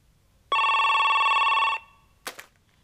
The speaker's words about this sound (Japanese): ブツブツ言うと電話が鳴る